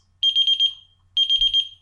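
A phone notification alert sounds twice: two short bursts of rapid, high-pitched electronic beeps, each a quick trill of about six pulses, fairly loud with a pause between and no talking.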